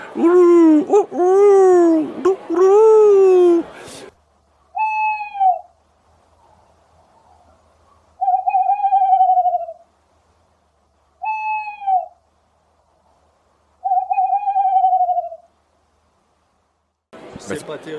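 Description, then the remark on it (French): A person imitates a male tawny owl's call: a loud, long, wavering hoot, followed by four shorter, softer hoots spaced a few seconds apart with quiet in between. “Le mâle, c'est le chat-huant, hein. c'est celui qu'on entend régulièrement, là, qui fait un espèce de son lugubre dans la nuit.”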